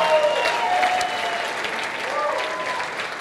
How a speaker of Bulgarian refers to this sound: О, ако ръкопляскаш, ръкопляскай, като че наистина вярваш в това.